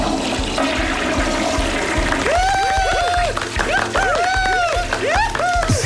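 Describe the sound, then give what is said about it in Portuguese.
An applause sound effect is played on the Comercial radio morning show: a burst of steady, dense applause, and after a couple of seconds loud rising-and-falling whoops and cheers join in over the clapping. “Desculpa, eu quero os aplausos outra vez. Vai, mete.”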